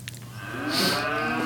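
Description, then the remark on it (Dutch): A cow moos once in a long, drawn-out, harmonic low that swells and holds steady, fairly loud, with no talking over it. “Even kijken hoor, of de koeien, want die hebben we nou weken niet meer gesproken.”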